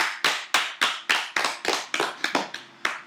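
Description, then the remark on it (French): Applause from a single pair of hands: about a dozen crisp, sharp claps in a quick, fairly steady rhythm, moderately loud, with no voices over them. “D'ailleurs, pour les années 80, moi je dis applaudissements.”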